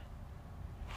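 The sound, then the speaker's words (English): A steady, low rumble of interstate traffic heard from inside a hotel room, muffled, faint and continuous with a slight hiss rising at the end. “This is the sound of the interstate”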